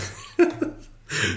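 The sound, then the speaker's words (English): A single sharp, explosive sneeze bursts out, followed by a short pause and then a rush of breathy, noisy exhale. “Gesundheit.”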